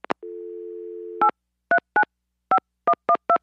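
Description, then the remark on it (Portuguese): A steady dial tone hums for about a second, then a series of short, evenly spaced touch-tone beeps as a phone number is keyed in to call someone's home, clear with no voices. “Primeiro, antes de saber se ele vai ser o nosso sorteado, nós precisamos tentar ligar para casa dele.”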